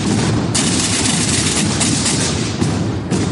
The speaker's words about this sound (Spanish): Efectivamente, los tambores y bombos han vuelto a sonar por las calles de Aragón dos años después.